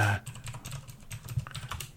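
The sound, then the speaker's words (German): Rapid typing on a computer keyboard, a steady patter of clicky keystrokes, with no voices over it. “Jetzt hörst du nur noch getippt.”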